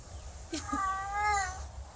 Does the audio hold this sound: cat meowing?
yes